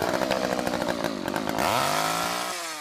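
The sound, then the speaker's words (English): A chainsaw engine, used to scare trick-or-treaters at a family's neighbourhood Halloween haunt in Harrisonburg, runs loud, sputtering at idle before revving up to a steady high-pitched whine that holds to the end. “People really like the chainsaw, it, it just scares them enough.”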